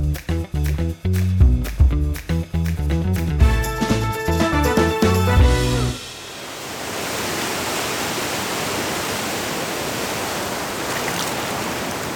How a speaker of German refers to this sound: Das ist die Isel, einer der letzten wilden Flüsse Europas so hört sich die Isel vom Ufer aus an